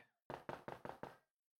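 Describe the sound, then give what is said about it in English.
Five firm knocks on a door in quick, even succession, fairly loud, followed by silence. “At this precise moment, God is standing at the door of your heart knocking.”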